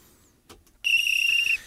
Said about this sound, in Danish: Vi fløjter den af her